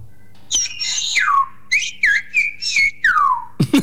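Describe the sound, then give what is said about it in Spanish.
Whistled Spanish: loud, piercing whistles sliding up and down in pitch, grouped into short speech-like phrases with brief pauses between them, and no spoken voice. “Ahora decís, oh, sígate, sí, es que es español, pero silbado, en vez de susurrado gritado hablado, claro.”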